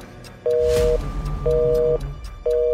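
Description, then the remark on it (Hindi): A phone's disconnected tone after a call is hung up or cut off: a steady two-pitch beep pulsing on and off in an even rhythm, three loud pulses over faint background hiss. “इतना कह के उस औरत ने फोन रख दिया या शायद कॉल कट गई बरसात में खराब लाइन की वजह से पता नहीं”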